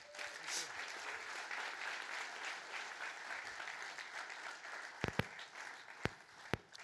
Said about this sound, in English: So let's give a hand